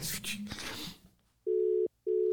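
A telephone dialing and ringing tone: a short burst of muffled handling noise, then a loud, steady electronic ringback tone sounding twice with a brief pause between.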